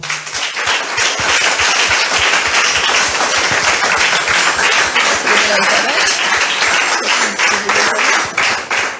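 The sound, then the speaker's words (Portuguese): An audience applauds the Lord loudly and steadily, dense clapping from many hands filling the room without a break for several seconds. “Aplauda o Senhor.”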